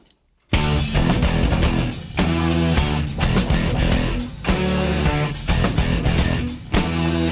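A loud, driving rock guitar riff over bass and pounding drums, repeating in a steady heavy rhythm after a brief moment of silence at the start, with no voices.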